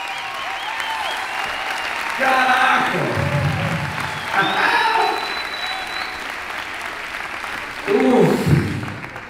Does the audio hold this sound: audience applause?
yes